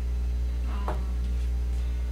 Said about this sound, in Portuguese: Mas ele tá dando chiado mesmo com o microfone desligado.